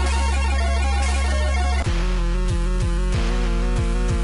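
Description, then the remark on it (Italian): Intro music of a video game with bright, sustained synth tones and a busy melodic pattern, then a punchy bass drum starts thumping on a steady beat about halfway through. No voices. “Solstice, il tipico gioco che riprendeva i motori della Rare, ma sentite come lo fa suonare Team. Comincia tranquillo.”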